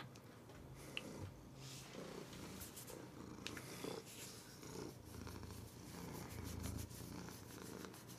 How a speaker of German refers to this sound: Wir hören uns jetzt einfach noch 10 Minuten Geschnurre an.